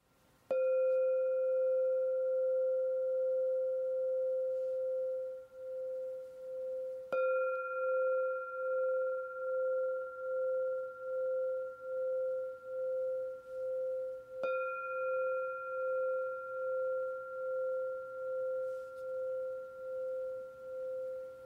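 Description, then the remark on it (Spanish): Three Himalayan singing bowl strikes, each ringing into a long, steady mid-pitched hum with a gentle pulsing shimmer and higher overtones, sustaining until the next strike. No voices. “Estos son los cuencos del Himalaya.”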